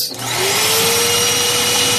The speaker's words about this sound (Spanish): Sí, sí, la aspiradora. Eso sí, la aspiradora sin cables. ¿eh? la inalámbrica. eso es, que fue un invento impulsado por la NASA porque necesitaban taladros para cortar muestras de núcleo de la Luna